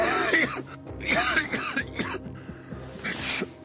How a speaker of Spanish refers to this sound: se tapa la cara al toser.